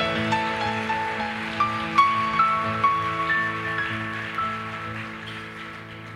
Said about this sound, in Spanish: Vamos a dar un aplauso ahí al Señor.